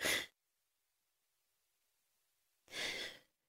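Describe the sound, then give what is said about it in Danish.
A radio presenter on Danish Radio 4 clears their throat twice during a news broadcast, a short raspy burst followed by a longer, fuller one after a silent pause of about two seconds; no talking. “Undskyld, jeg skal lige rømme mig.”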